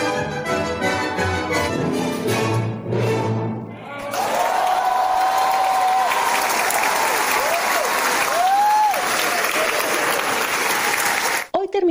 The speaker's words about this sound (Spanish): Gustavo Dudamel complació a los asistentes por más de una hora de vocación a Gustav Mahler y regresó una y otra vez. Recibió aplausos, finalizó así la noche.